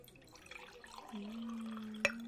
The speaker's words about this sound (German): schütten Sie mir bitte noch etwas Wasser